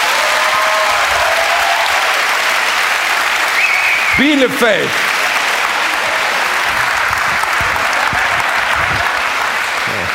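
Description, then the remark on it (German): Steady applause from a live crowd of about 1000 people, clapping their hands in answer to a question put to them, fills the whole stretch, dense and continuous, with a brief spoken word and some cheering voices rising partway through. “Alle, die sagen, es heißt Köpfer, klatschen jetzt einmal in die Hände.”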